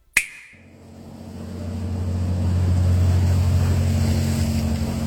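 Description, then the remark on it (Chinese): A cargo boat passing under the arch of Gongchen Bridge, a three-arch stone bridge over the Grand Canal in Hangzhou; its deep, steady engine drone swells as it passes, with a broad wash of canal water slapping hard against the embankment; a brief sharp click at the very start, no voices. “又一辆货船穿过桥洞。每次船过，就会引得运河水剧烈的拍打堤岸，听起来是不是还有几分波澜壮阔的意味？”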